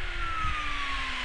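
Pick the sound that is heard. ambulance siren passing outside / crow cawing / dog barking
ambulance siren passing outside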